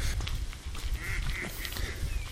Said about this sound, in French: Oh là là, il y a les gros canards. On va essayer, de faire un jingle canard. Eh oh Ils se barrent tous. Là, devant moi, j'ai une dizaine de canards qui fuient. Oh, lui, il est bien gros.